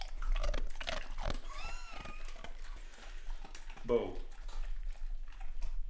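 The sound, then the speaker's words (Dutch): A dog crunches and chews a hard, dry, bone-shaped Jara dog biscuit, with wet gnawing and snapping bites repeating unevenly over several seconds, while people talk softly in the background. “Biscuit voor de dogs. Ja, dit is in, zo'n, in de vorm van een botje.”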